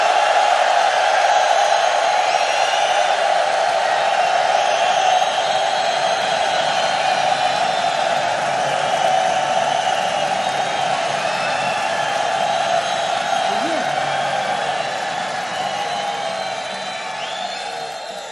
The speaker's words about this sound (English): Now I heard that the folks in this room can make more noise and more applause than anywhere in the world. So we're going to do one more time for this man right here.